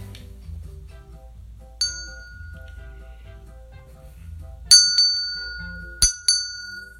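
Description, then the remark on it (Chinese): A doorbell chimes: one bright ding, then two quick ding-dong pairs, each ringing tone fading slowly over a soft, low background hum. “叮咚，叮咚，叮咚，是谁来了？”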